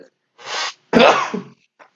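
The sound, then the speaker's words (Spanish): A single loud sneeze: a breathy, hissing intake followed by a sharp explosive burst that trails off into a short voiced tail, then quiet. “Salud.”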